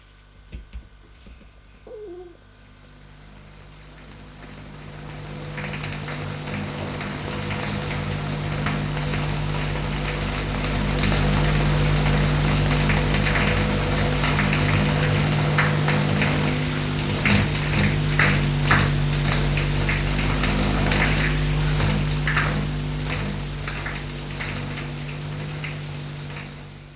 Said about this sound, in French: Elle se déshabille. Prend sa douche.